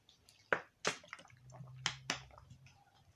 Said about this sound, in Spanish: a ver, permítanme un segundo, porque el estar hablando así fluidamente y pues, tú sabes, llevar este ritmo de, de, charla, pues me seca un poquito la garganta, así que voy a tomar un poquito de agua.